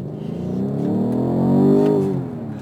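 A car engine revs up as it accelerates, a loud, steady drone whose harmonic pitch climbs smoothly, peaks, then eases slightly at the end, with no talking.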